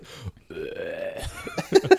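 A loud, drawn-out burp with a croaky, tonal rasp, followed by a few short gulping bursts, with no talking.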